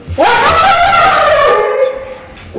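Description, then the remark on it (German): A dog lying under a table lets out one drawn-out, high whining yelp after being accidentally touched, rising sharply at first and then slowly sagging before it breaks off, with no talking over it. “Das war der Hund.”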